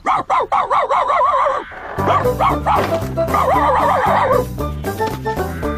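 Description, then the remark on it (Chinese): A dog, Agi, with a new dog kennel, barks in a quick, high-pitched string of about seven yaps, then keeps barking and yipping over a bright, bouncy music backing that comes in partway through. “阿吉的新狗笼子看起来真不错。”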